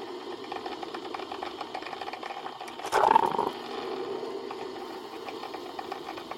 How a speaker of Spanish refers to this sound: Es una cafetera. Ok el sonido de la cafetera pues, no es nada más el sonido, sino el olor también que produce una cafetera.